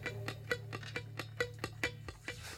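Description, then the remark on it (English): A clock ticks steadily, about two crisp tick-tock beats per second in an even rhythm, fairly quiet, over a faint low hum with no voices. “Grandma's clock makes me crazy. Grandma's clock makes me sick. I hate this fucking click clock.”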